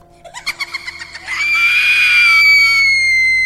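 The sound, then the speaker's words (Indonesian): A ghostly female figure flies up through the roof of a house, giving a shrill, eerie, scream-like laugh. It begins as rapid choppy bursts, about ten quick pulses, then rises into a long piercing wail sustained at high pitch, loud. “Sosok perempuan itu langsung terbang ke atas, menembus atap rumah sambil tertawa yang mirip jeritan dan dengan suara yang sangat melengking.”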